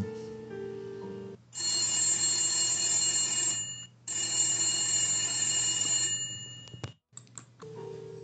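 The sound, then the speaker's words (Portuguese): An old-style telephone bell rings loudly in two long bursts of about two and a half seconds each, separated by a short pause, with a low steady hum underneath. “De repente, o telefone tocou.”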